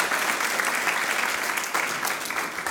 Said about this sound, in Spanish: fuerte aplauso al Rey de a strong Reyes. applause to the King of Kings.